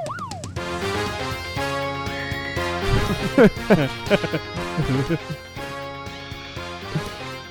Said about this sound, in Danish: Prøv lige at høre det der skrig der. Det lyder, der, som, det lyder nærmest som en, der er tjener på en, på en restaurant.